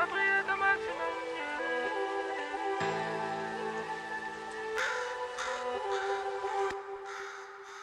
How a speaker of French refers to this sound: C'était des corbeaux ou des cornets, les gars Corbeaux Bah, t'entends des ah, ah